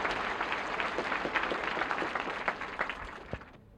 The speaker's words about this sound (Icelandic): Og nú gengur Vigdis fram á svalinnar á húsi sínu og með henni gengur uh, Þór þjóðminjavörður og hún tekur við fagnaðalátum fólksins. Og hún tekur undir klappið.